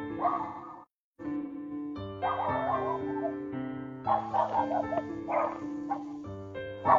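A neighbour's dog in a rural village barks at night in short, irregular bursts, a few seconds apart, over a steady droning hum of sustained tones. No one speaks.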